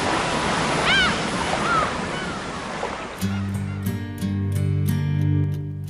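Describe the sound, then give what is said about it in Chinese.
Sea waves crash onto a shore of rocks and sandy beach in a steady roar of surf over the first half, with a few high gull cries above it, before a music track with a beat and sustained tones takes over. “刚才和大家听到的这一段片花，同样也是来自于我们男神音乐时间制作的一段片花，而正好我们采用的就是来自于大海的声音，海浪拍打在岸上，那样的礁石，那样的沙滩，那样的海鸥。”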